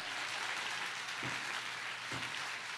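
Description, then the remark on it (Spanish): An audience applauds the Lord, clapping together in a steady, dense wash of applause that holds at an even level throughout, with no voices standing out above it. “Yo no sé si usted puede aplaudir al que ha orado por usted, pero yo quiero hoy.”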